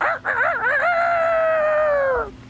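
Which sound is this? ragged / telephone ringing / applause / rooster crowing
rooster crowing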